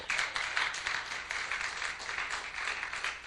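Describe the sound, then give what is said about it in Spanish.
A church audience breaks into steady applause for Christ, many hands clapping at once in a dense, bright, continuous patter that holds at an even level for a few seconds. “¿Cuántos le dan un aplauso a ese Cristo maravilloso?”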